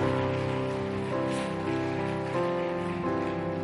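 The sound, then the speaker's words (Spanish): An audience applauds Jesus in a steady, dense patter over sustained keyboard chords that shift every second or so, the clapping and music staying loud and even throughout. “Dale un fuerte aplauso de nuevo a nuestro Jesús.”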